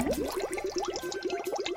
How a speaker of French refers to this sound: Le pot de terre cuite se remplit d'eau en faisant des petites bulles et donc des petits bruits. On dit qu'il chante.